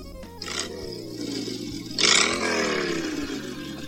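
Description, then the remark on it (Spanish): An iPhone motorcycle ringtone: a loud, growling engine revs twice, each burst rising then sliding down in pitch over a steady low rumble. No one speaks. “Motocicleta. Seleccionado. Motocicleta.”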